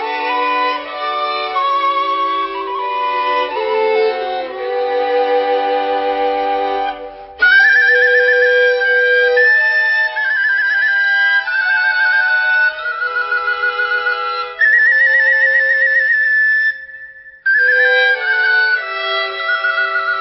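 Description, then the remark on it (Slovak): A willow bark whistle, a children's folk instrument made by tapping and stripping willow bark, plays loud, shrill tones in long sustained notes that shift pitch, broken by two short pauses, with no voices. “Otlkaj sa, píšťa vrbová, keď ťa stočiem, budeš celá hotová.”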